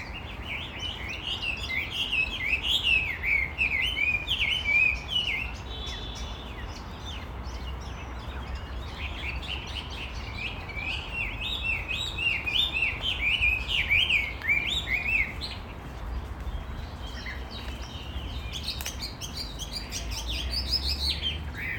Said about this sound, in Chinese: 天啊，真是一只画眉，而且是野生状态的。我服了，说这声音怎么这么怪？就在小区楼下，这绝对是被人家笼养的逃出来的。现在它飞到了一棵樱花树上，听，这是它的声音。